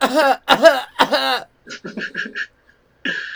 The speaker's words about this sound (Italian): da dietro il banco sentite eh. tossire